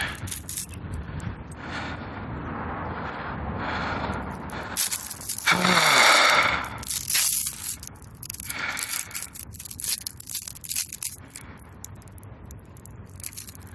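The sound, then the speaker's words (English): Crinkling and rustling of a plastic bag, building to a loud ripping tear midway through, followed by more scattered crackling and handling noises with no one speaking. “There's got to be a better delivery system than these plastic bags.”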